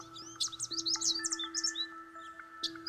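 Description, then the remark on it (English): Birds chirp and tweet in quick, overlapping bursts on a calm day, against a quiet, calm outdoor background, with a steady low hum underneath and no voices. “You want to hear what my favorite weather sounds like? Take a listen.”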